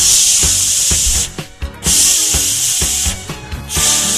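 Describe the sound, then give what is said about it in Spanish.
Loud, steady hiss of dry ice fog blasting out in long bursts, cut by two brief pauses, with a low rhythmic thumping underneath. “Y si, te piden, si te piden hielo seco, ahí echas el.”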